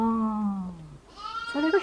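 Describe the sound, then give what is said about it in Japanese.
A sheep bleats twice in quick succession, a long wavering baa followed by a shorter, higher one, fairly loud with no other sounds around it. “うん、山木先生のところの牧場で羊に会ったっていうのは、その一つのきっかけになりましたけど”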